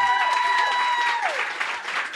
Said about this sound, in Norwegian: Gi en applaus, da, dere.